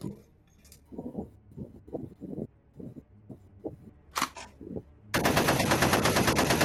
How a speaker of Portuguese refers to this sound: O tiro rasante acerta o piloto 3 recebe várias balas ao redor do seu corpo também. Algumas balas perpassam é, o tronco dele e o seu braço.